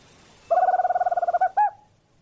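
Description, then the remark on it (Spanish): A single tropical screech owl (alilicucú) gives a fast, even trill of about fifteen quick notes, ending in a short rising-falling hoot, clear against a quiet background. “Este me hace acordar más a un caburé, ¿no? Con un canto profundo.”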